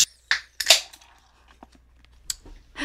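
A can of Guinness being opened: a few sharp metallic clicks, a crisp crack and hiss as the tab pops, then faint fizzing and a couple more clinks.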